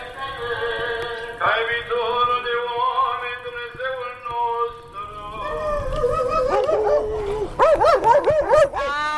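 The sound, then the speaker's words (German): Several guard dogs in a village in Romania howl and whine in long, wavering overlapping tones, then break into a burst of sharp yelps and barks toward the end; no one speaks. “Es knurrt, bellt, blafft und jault. Vor allem ist Rumänien für uns das erste Hundeland.”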